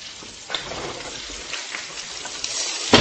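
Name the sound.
heavy rain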